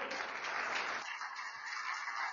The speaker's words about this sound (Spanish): Les aplauso fuerte al que vive.